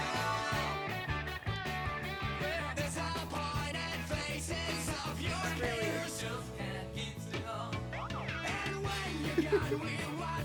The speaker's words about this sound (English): The fucking like slide whistle or whatever that thing is.